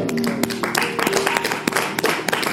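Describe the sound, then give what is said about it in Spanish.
A crowd applauds steadily, many hands clapping at once in a dense, continuous patter with a few sharper claps standing out, fairly loud throughout, clapping at the preacher's call during a Spanish-language sermon about God. “Vamos, denle un aplauso a”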